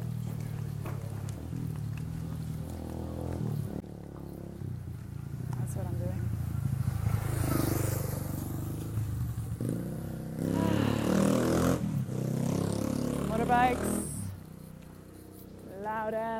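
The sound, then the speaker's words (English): Motorbikes roar along a road, their engines swelling and fading as they pass, with one rising, revving whine near the end and a person talking underneath. “motorbikes.”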